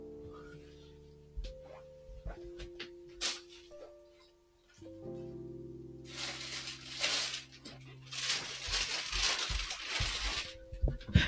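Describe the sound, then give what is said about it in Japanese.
Intermittent rustling and handling noises as someone fetches a book, with scattered clicks and bumps early on, then denser, louder crinkly rustling through the second half. A faint steady hum runs underneath; no one speaks. “ガサガサ。”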